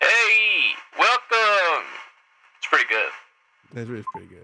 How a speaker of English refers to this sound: He's the radio. Fucking voice changer.